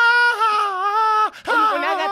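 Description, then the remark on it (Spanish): A person's voice imitates a yowling cat in heat, two long wavering, whiny wails with a brief break between them, loud with no other talk. “una gata en celo.”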